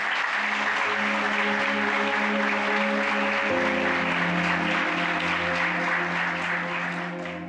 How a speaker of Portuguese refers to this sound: Aplauda ao Senhor.